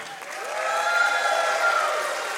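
audience cheering

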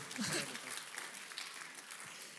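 audience applause and cheering

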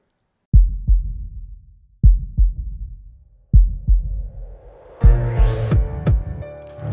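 heartbeat sound effect

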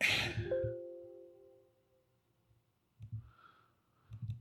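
doorbell ding-dong chime

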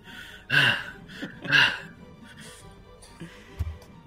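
heavy panting breaths

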